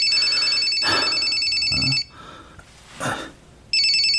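A phone rings with a bright, warbling electronic tone, sounding for about two seconds, falling silent briefly amid some rustling and a short noise, then starting up again.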